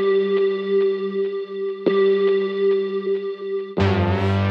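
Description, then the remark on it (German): A steady, electronic synthesizer tone hums with a sonar-like quality, broken by a brief pulse partway through, then gives way to a fuller, brighter burst of sound near the end. “Und ähm, am Anfang ist mir jetzt irgendwann aufgefallen, könnte man diesen, diesen Synthesizer, den man kurz hört, ähm, könnte auch so eine Art Echolot sein.”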